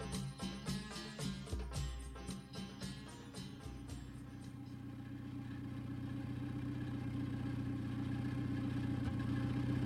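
Mayor Boudin's somewhat old car rattles and clatters over rough dirt ground, driving back to the village, with a string of sharp knocks at first, then settles into a steady, gradually louder engine drone. No voices.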